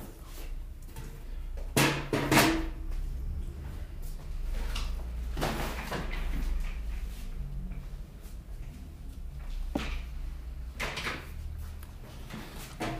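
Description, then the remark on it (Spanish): Chairs being shifted as one chair is taken away and swapped for another: a series of wooden knocks, scrapes and clunks at irregular intervals over a low rumble, with no one talking. “Déjenme hacer un poco de ruido porque voy a quitarme una silla para cambiar y otra.”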